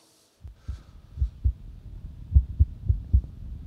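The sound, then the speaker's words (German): A heartbeat with cardiac arrhythmia: low, muffled thumps come sometimes faster, sometimes slower, sometimes after a pause, over a faint steady hum. No one speaks. “Mal schneller, mal langsamer, mal eine Pause, das sind Rhythmusstörungen.”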